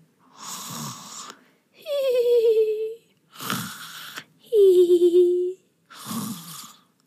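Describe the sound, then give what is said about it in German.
A voice playfully imitates a reindeer's soft snoring as it falls asleep: raspy inhaled snores alternate with whistling exhales, five in a slow, steady rhythm, gentle with no words spoken. “Und dann war das Rentier auch schon eingeschlafen und schnarchte leise vor sich hin.”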